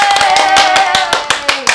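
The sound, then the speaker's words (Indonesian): A crowd applauds the signing of the founding deed of the Sekoci foundation, with fast, overlapping claps forming a steady dense patter, loud and bright, with sharper individual claps standing out near the end. “Insya Allah, tepuk tangan dulu dong.”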